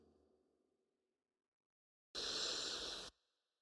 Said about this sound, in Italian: Dunque, inspiriamo, pausa, espiriamo, uno.